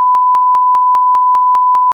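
A censor bleep over a person's name in a conversation: one steady, high-pitched beep tone held for about two seconds at a loud, even level, with regular clicks pulsing through it roughly five times a second. No one speaks.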